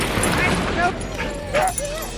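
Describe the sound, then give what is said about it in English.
Several huskies bark and yip excitedly together, with high-pitched whining yelps rising over a busy outdoor background, continuous throughout, as dog teams train and race pulling scooters and bikes in Passchendaele State Forest. “Yep, on certain weekends in the Passchendaele State Forest, you'll find huskies and their people training and racing as teams of dogs drive scooters and bikes.”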